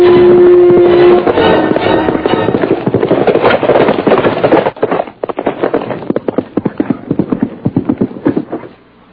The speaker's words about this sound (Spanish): Hay ah, llegó uno de a caballo. Sí, lo estoy mirando por la ventana. Es una mujer, don Benito.